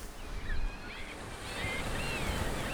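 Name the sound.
rough sea waves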